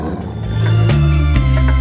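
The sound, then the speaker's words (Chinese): A tiger roars with a deep, rumbling growl that swells from a quieter start into a loud, sustained roar with rough surges, and no one speaks. “那一天，老虎想起了被人类支配的恐怖，以及囚在笼中的耻辱。”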